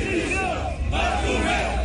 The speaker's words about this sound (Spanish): Sí, bueno, sí, los hinchas están gritando a las afueras del club de, eh, de Barcelona. división! división!